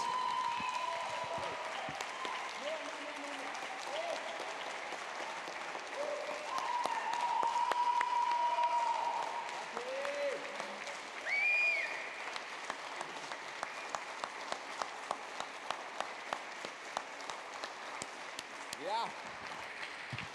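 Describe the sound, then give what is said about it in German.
A large church audience applauds steadily for about twenty seconds to thank its pastors for all they do, with voices and cheers rising through the dense clapping before it thins out into scattered individual claps near the end. “Du darfst jetzt weinen vor Freude und vor Glück und wir geben dir den Applaus für alles, was ihr tut für uns.”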